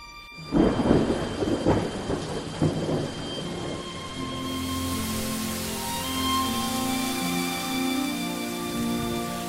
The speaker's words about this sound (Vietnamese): Dù cho những cơn mưa của Sài Gòn liên tục dội xuống,